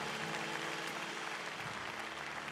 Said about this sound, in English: Uh, I love, come on, let's clap our hands for your, uh, your pastors. Real deal.